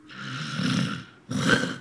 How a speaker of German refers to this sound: Die schnarchen, was an sich nicht gesundheitsschädlich ist. Aber bei Schlafapnoe hat man zusätzlich Aussetzer beim Schnaufen.